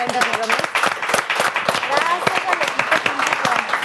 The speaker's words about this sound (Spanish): eso es admirable así que felicidades a los dos un aplauso